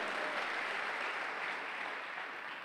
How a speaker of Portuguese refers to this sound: Se você crê, aplauda ao Senhor e toma o teu lugar.